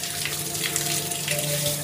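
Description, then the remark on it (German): Water pours in a steady, unbroken stream into a garden pool in Kronberg, a dense hiss and gurgle like a tap or hose filling it, fairly loud with a faint hum beneath. “Man muss sich vorstellen, in Kronberg leben die reichsten Bestverdiener und füllen in ihre Gärten ihre Pools mit mehreren tausend Kubikmeter Wasser.”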